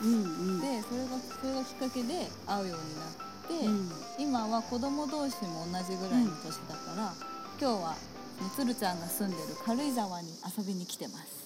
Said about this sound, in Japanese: ちょっとたまにセミの声とか 入るかもしれないんですけどすごい今自然の素敵な空間の中でレコーディングしてます